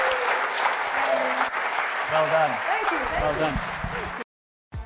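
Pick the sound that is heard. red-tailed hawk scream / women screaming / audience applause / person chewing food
audience applause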